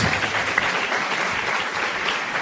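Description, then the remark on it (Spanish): Steady audience applause, a dense wash of many hands clapping at a constant loud level throughout, with no voices standing out. “Y bueno, aprovechando el aplauso”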